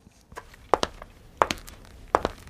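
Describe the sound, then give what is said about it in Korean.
Hard-soled men's dress shoe footsteps, low-heeled and weighty, each step a crisp heel-then-toe pair of clicks at a steady walking pace, distinct against a quiet background. “구두 발걸음 소리인데요. 구두 발자국 소리. 이게 남자가 내는 구두 발자국 소리입니다.”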